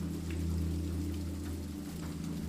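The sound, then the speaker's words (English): Steady rain falls in a continuous, even wash with a low, constant rumble underneath and faint scattered drips, no voices present. “Cozy autumn vibes and rain sounds help you fall asleep in tonight's rainy bedtime story.”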